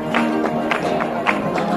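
A crowd, including members of a choir, claps in a steady, quick rhythm while voices sing together underneath on Calle Cardenal Carlos Amigo, the handclaps landing evenly and fairly loud over the continuous group singing.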